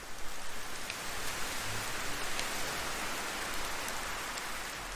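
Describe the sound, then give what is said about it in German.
Steady rain falls continuously, a soft dense patter of raindrops with faint brighter taps scattered throughout, fairly quiet and even from start to finish with no voices. “während du den Tropfen des Regens lauscht. und den Geräuschen des Windes sanft folgst.”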